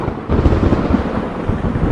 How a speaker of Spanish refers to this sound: En ese preciso momento, en el cielo sombrío, estalló un violento trueno.